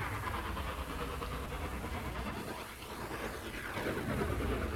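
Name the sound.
train passing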